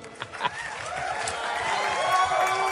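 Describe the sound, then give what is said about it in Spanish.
A warm ovation for a guest being introduced on a show: dense, steady applause from a crowd mixed with cheering voices, swelling slightly louder as it goes on. “Ovación calurosa, muchísimas gracias, mis niños adorados.”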